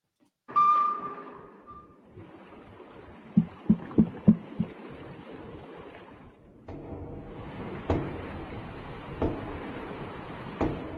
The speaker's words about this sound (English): That's a motor. This is a motor. What you're hearing here is motor. Look at the lines. Look at how uniform they are. That's a motor.